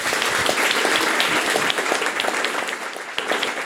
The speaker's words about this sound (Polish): ale słuchajcie, zanim będziemy komentować, to poproszę Was o brawa dla nich.